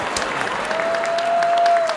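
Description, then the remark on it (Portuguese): An audience claps steadily, a dense wash of many hands applauding at an even level throughout, with a faint sustained tone running beneath the clatter and no voices standing out. “Eu vou chorar, gente, porque as palmas, meu coração faz tudo, não aguento.”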